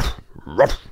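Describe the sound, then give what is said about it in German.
A person imitates a dog barking with one short, loud, throaty yelp, framed by softer voiced sounds before and after. “Siehst du, du kannst besser bellen als in dem letzten Hörspiel.”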